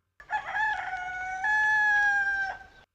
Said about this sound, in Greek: δεν δίστασαν να χρησιμοποιήσουν samples από κοκόρια